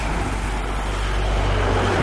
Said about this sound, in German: Wahnsinn, wie viel Verkehr da ist, oder? Cool. Das ist ein so kleiner Ort, mhm. aber wieder. Da donnern es durch die Autos. Da donnern es echt durch.